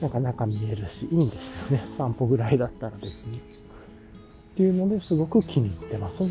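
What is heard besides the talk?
bird calling outdoors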